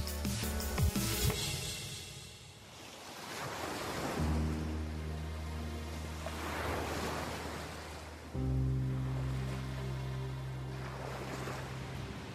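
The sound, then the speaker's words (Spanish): Ocean waves roll in and wash over the shore in slow, steady surges, with a low sustained musical drone humming underneath; no one speaks. “Para mí, y supongo que también para muchísimas personas, el sonido de las olas es un maravilloso portal para conectar con la naturaleza y con la paz interior.”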